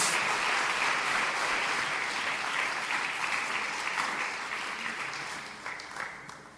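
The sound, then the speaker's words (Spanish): A church audience claps vigorously as an offering of applause to God, in a dense, sustained burst that stays loud for several seconds, then gradually thins and tapers off toward the end, with no one speaking. “Pues usted bendecir al Señor con una ofrenda de palmas vigorosa que usted le ofrezca a Dios.”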